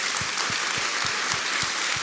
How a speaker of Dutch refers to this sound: Hij zei: Tuurlijk! dus ik wil graag hem bedanken met een applaus. Zullen we hem dank wel zeggen?